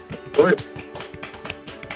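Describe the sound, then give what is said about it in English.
A soft golf clap given to thank a guest: light, quiet hand claps in a quick, fairly steady patter over about two seconds, with a short murmur of voice near the start. “We're going to give you a golf clap.”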